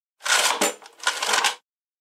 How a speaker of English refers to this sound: That's the sound of a manual credit card machine, also called a credit card imprinter.